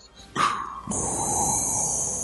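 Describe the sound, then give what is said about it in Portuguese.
A voice imitates the menacing respirator breathing of a black-clad character in a black helmet: a short rasping inhale followed by a long, steady hissing exhale, fairly loud, with no talking. “A primeira coisa que vem na mente das pessoas, da maioria das pessoas, é aquele cara de preto lá com capacete preto, entendeu? Andando com aquela respiração sinistra.”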